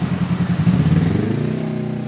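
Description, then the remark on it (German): Busy city street traffic beside the Linke Wienzeile, one of the city's main traffic arteries, with an endless stream of vehicles and a loud engine rumbling past, its pitch shifting as the vehicle moves, over a steady wash of road noise. No one speaks. “Kleiner Spaziergang vom Westbahnhof zur linken Wienzeile, einer der Hauptverkehrsadern der Stadt, direkt an der Straße am endlosen Verkehrsstrom”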